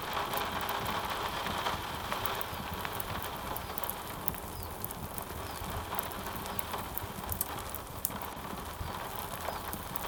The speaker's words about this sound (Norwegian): Og der satt jeg ved bålet hele kvelden og venta på regnet. Og så kom regnet. Det kom alltid natterstid.